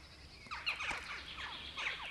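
A flock of western jackdaws calling, with short, sharp overlapping calls repeating rapidly over a faint outdoor background, steady throughout.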